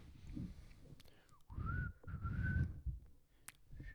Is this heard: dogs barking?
no